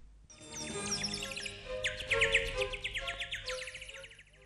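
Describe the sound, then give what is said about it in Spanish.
A robin sings a bright, continuous song of rapid chirps, trills and warbling phrases, clear, running nearly the whole time without pause. “Y esta es la canción que le cantaré desde su balcón a nuestro buen rey.”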